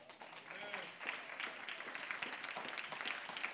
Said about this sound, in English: I think it'd be appropriate if we gave the Lord a hand clap.